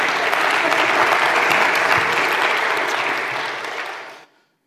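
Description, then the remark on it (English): A church audience in Port Angeles breaks into loud, steady applause celebrating seven people praying to surrender their lives to Christ, a dense wash of many hands clapping at once that holds strong for about four seconds, then tapers off quickly into silence. “we got to share the gospel with 108 people prayed for 90 people and we ended up having seven people pray that they would surrender their lives to christ that's pretty amazing you can clap”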